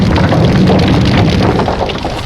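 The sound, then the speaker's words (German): The burning roofs of a house and a barn crash down in a loud, sustained roar of rumbling and crackling debris that barely lets up over a couple of seconds, with no voices. “Doch als sie sie erreichten, stürzten die Dächer des Wohnhauses und der Scheune krachend zusammen.”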